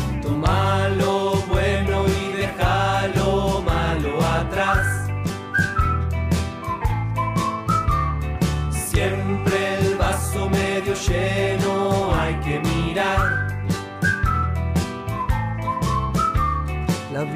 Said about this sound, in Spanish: Junta los labios y empieza a silbar.